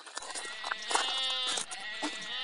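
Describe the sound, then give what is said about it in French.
Bottle-fed young goat kids at an animal park bleating in a continuous, overlapping chorus of high, wavering cries, several calls layered on one another and fairly loud, with no one talking. “Donc là, vous avez des, des bébés au biberon, c'est ça que Oui, ouais, on a trois chevreaux, quatre chevreaux et un alpaga.”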